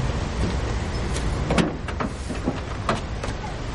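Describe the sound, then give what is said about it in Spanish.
A driver loads luggage into a taxi's trunk: a few scattered knocks and clunks, one slightly louder thump midway, over a steady low rumble of a vehicle, with no voices. “El chofer mete el equipaje de Hannah en el maletero.”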